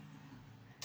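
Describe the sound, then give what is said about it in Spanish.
A motorcycle engine drones steadily outside in the background, a low, rumbling hum that stays constant throughout the short moment, fairly quiet, with no voices over it. “Perdón por el ruido de la moto, no lo voy a editar.”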